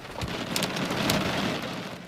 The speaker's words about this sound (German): Dementsprechend heftig sind so die Wettererscheinungen, wie es jetzt ist. Es fängt nämlich leicht an zu hageln, habe ich das Gefühl.